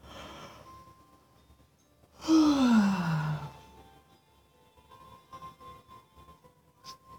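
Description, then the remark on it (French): A single long yawn brought on by a big breath during a relaxation exercise: a deep breathy inhalation that turns into a voiced tone sliding downward, lasting about a second, with quiet background before and after. “Parce que quand je vais bailler, je vais prendre une très grande inspiration.”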